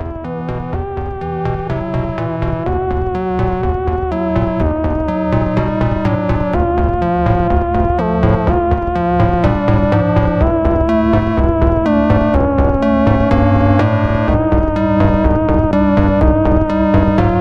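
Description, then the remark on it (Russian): Steady dungeon synth music with bright synthesizer settings like 80s dance music layered over a droning, ambient bed, playing continuously at an even, moderately loud level with no voices. “У него нехарактерные для жанра настройки синтезаторов, как будто бы из танцевальной музыки 80-х, когда вам хочется странного, но крутого”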